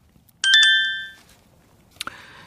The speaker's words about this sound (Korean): 이게 아마 문자 도착음 같죠? 네, 여러분들 가지고 계신 스마트폰에. 일부에 나가는 노래 중간에 이 소리가 섞여 나오는 노래가 있어요.